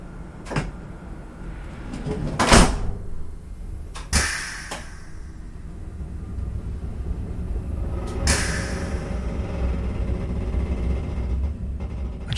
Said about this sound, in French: Voici le train TER numéro 3903 à destination de Bourges va partir. Prenez garde à la fermeture automatique des portes. Attention au départ.